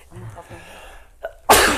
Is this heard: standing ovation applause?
no